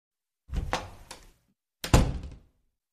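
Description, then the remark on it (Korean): A bathroom door is pushed shut as a mother goes into the bathroom: a first rattling knock of wood and latch, a brief pause, then a heavier solid thud as it closes firmly. No one speaks. “엄마는 결국 벌떡 일어나더니 화장실로 들어가 버렸다.”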